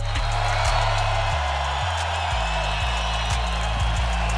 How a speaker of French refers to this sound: prépare-lui un tonnerre d'applaudissements.